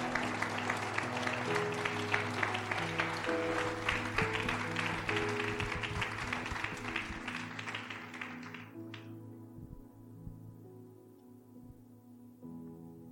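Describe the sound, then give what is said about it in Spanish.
A crowd applauds loudly for God for about nine seconds, dense clapping over a sustained low musical drone, then the clapping stops abruptly and only the soft held tones remain. “un aplauso fuerte a Dios.”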